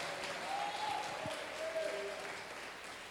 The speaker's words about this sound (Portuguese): Aplauda o Senhor e glorifica o seu nome nessa noite.